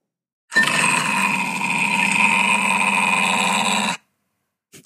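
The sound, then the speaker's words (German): A grumpy dog's deep, grumbling growl holds steady and loud for about three and a half seconds, rough and buzzing enough to resemble a running motor, then stops abruptly. “wenn jetzt ein grantiger Hund genauso gut ein Mixer sein kann oder Auspuff”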